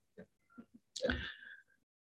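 A few short breathy catches lead into one loud sneeze that bursts out sharply and trails off over about half a second. No talking is heard.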